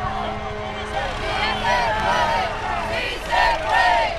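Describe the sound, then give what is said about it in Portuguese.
A dense crowd shouts and yells over one another in a continuous, chaotic roar at the Venezuelan border line near the Francisco Santander International Bridge, as Venezuelan soldiers act against the crowd. Overlapping raised voices swell louder toward the end over a low steady hum. “E o caos na linha da fronteira.”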